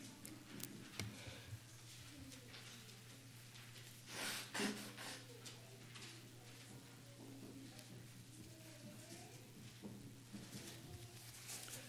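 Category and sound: human body sound, person blowing their nose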